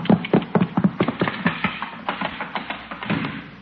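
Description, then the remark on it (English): A rapid, uneven clatter of hooves on a hard floor, like a horse trotting indoors, with many sharp knocks in quick succession at a fairly steady, moderate loudness. “Hey, that sounded like a horse.”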